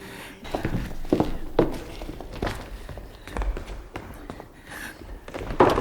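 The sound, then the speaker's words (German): Footsteps walk steadily in a circle through connected rooms at a moderate pace, each step a dull thud, with a few slightly heavier landings and some faint shuffling in between. “Wir können einmal im Kreis gehen.”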